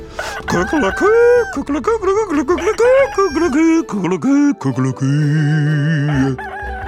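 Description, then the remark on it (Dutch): A human voice mimics a rooster's crow, 'kukelokoe', as voice exercises, in a series of strained, pitch-bending vocal calls, ending with a long, held, nasal note. Loud, with no other sounds. “En haan, kukelokoe, die doet de hele middag stemoefeningen.”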